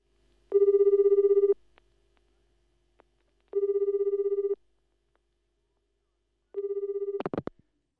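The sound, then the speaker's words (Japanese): A phone line rings back three times in steady one-second tones spaced a few seconds apart, then a sharp click cuts in as the call connects. “結局電話すると言ってた彼女からの電話はなく3日後に電話することにした”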